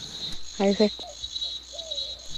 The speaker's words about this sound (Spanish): Voy a, bajar, con música acá y me voy a quedar con el audio que nos manda ella, que se escucha la cigarra.